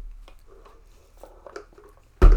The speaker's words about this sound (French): gorgée d'eau